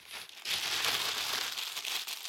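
A sheet of paper being crumpled, a continuous crackly crinkling that rustles and crunches for a couple of seconds with no one speaking.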